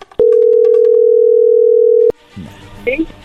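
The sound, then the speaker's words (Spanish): A phone line gives one long, steady, loud ringing tone lasting about two seconds while a phone call is being dialed, with a faint click at the start and end, then voices begin talking. “A ver, no haga ruido, ahí se está marcando.”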